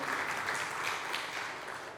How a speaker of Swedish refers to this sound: Då tycker jag vi kan ge Fredrik en applåd som sköter multimedian.